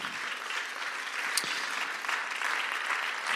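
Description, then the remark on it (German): A church audience applauds its leaders and small-group leaders steadily, a dense wash of many hands clapping at an even, sustained level for a few seconds, with no one speaking over it. “Ähm, sei das auf L1 oder darunter oder selbst wenn du Kleingruppenleiter bist, lass uns den allen mal einen riesen, riesen Applaus geben, der nicht einfach nur kommt, weil ich das jetzt sage, sondern von Herzen kommt.”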